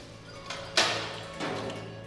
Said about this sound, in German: öffnet die Tür zu einem langen Kellerraum.